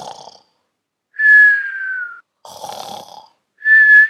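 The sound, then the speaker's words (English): Cartoonish snoring of Big Mouse, a mouse character in bed in a children's story read aloud, alternates a rough, rumbling inhale with a high, thin whistle that slides slightly downward on each exhale, repeating about twice in a steady rhythm with no talking. “Big Mouse, Big Mouse, Oh, you are snoring.”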